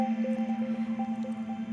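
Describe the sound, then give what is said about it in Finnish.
A steady, low pure tone hums without pause, its loudness wobbling in a fast, even pulse as two nearly matched sine tones beat together, with faint higher tones in the background. “Vasen korvasi kuulee nyt 200 hertsin siniääntä. Oikea korvasi 210 hertsin siniääntä.”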